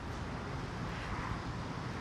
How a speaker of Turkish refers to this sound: kilometrelerce araç kuyruğu tam bu noktada trafik kilitlenmiş durumda.